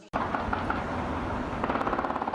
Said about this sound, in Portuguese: Os tiros foram gravados por moradores de bairros vizinhos ao Morro da Piedade traficantes resolveram invadir o local depois de uma discussão com os rivais numa rede social. Os invasores chegaram atirando